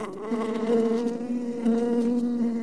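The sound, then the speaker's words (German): A bee buzzes steadily, a continuous droning hum with a slight wavering pitch, heard alone without any talking. “Die Biene kann jede Unterstützung gebrauchen.”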